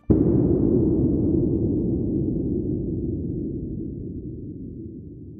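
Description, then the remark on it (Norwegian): A single deep underwater blast from dynamite exploding on the Norwegian seabed hits suddenly, then a low, rumbling roar slowly fades away over several seconds with no voices present. “I tiår har dynamitt eksplodert på den norske havbunnen. Og ut av disse eksplosjonene kommer en veldig viktig lyd.”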